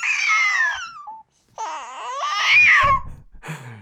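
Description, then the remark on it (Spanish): A baby babbles and fusses while being fed, in high, wavering vocal bursts, rising into a whiny, cry-like wail before trailing off, with a brief pause between outbursts and a short final squeal. “Bueno, esto es auténtico y estamos tratando de alimentar a un bebé.”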